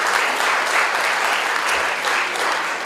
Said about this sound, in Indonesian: Kami tepuk tangan paling meriah.